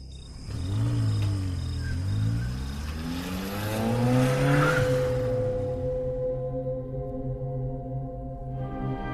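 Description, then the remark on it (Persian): A stolen car's engine roars, revving and climbing in pitch as it pulls away through a couple of gear shifts, with a brief harsh tire screech midway, then settling into a steady drone as it is driven through the desert toward the Karaj–Tehran road. “یه چند دقیقه تو بیابون رانندگی کردیم تا افتادیم تو همون جاده کرج به سمت تهران”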